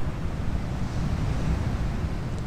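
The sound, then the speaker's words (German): Steady ocean surf washes onto a sandy beach in a continuous, rumbling hiss, a dense low roar of waves rolling in and back with no voices present. “Und nun nimm ganz bewusst wahr, wie das Wasser heraufrollt und wieder zurückrollt.”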